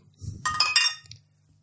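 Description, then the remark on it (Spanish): Glasses clink together in a toast during a beer tasting, a couple of bright chiming taps ringing out over a low rumble of handling noise, then fading quickly. “Bueno, salud. Salud.”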